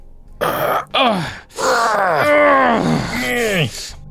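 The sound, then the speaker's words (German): A run of about five loud, straining vocal groans, each voiced and sliding downward in pitch, following one another with only brief breaks, as two people heave with great effort to push a cupboard in front of a door to block it. “Los, komm, hilf mir mal, den Schrank hier vor die Tür zu schieben, damit er nicht mehr, dass, dass hier sich nichts mehr bewegt, komm.”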